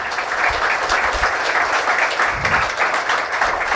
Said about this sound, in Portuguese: Aplauda o Senhor Jesus aqui essa noite.